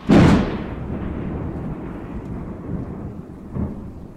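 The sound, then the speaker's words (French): A loud crack of thunder breaks open, then rolls on as a long, deep rumble that slowly fades, with a second swell near the end. No one speaks. “Donc, pour en revenir à notre orage, en plus de produire des rafales de vent et de fortes précipitations, parfois même de la grêle, il produit des décharges électriques.”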